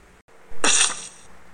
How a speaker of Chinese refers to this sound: 哦，小朋友们有没有听到一个“噗”的声音？在他们说话的时候，picnic bag 里面的 fruit cake 水果蛋糕砸到了地板上。